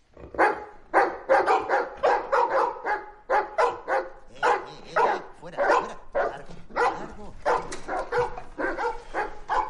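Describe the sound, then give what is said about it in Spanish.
Several dogs bark loudly and continuously in a rapid, overlapping chorus, with short sharp yips mixed in and no talking. “¡Esos perros, por favor! ¡Callaos!”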